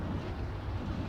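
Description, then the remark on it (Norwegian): A huge 250-metre-tall wind turbine produces a steady, low, rumbling drone with a breathy whoosh. It stays constant and fairly loud throughout, with no voices. “Dette er lyden av en 250 meter høy vindmølle.”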